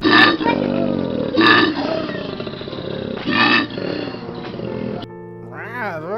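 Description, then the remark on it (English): A person imitates a koala bear with a loud, deep rasping bellow that pulses in several rough surges for about five seconds, then breaks into a brief wavering, higher-pitched sound. “what does a koala bear sound like?”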